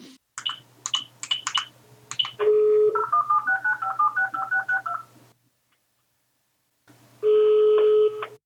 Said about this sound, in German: Hey, äh, kannst du mal, kannst du mal das Telefonding einspielen?